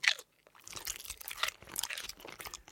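A monkey chewing on a banana in a shop: a quick bite followed by a steady run of moist, crunchy mastication noises, loud and continuous with no talking.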